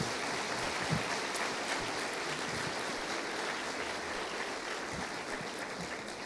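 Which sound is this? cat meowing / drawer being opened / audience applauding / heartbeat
audience applauding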